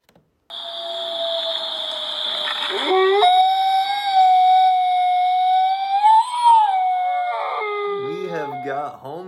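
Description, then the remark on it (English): A dog howls in one long, sustained, wavering cry that rises and dips in pitch, loud, then breaks into a few shorter warbling howls at the end. “absolutely howling at the moon over his new friend”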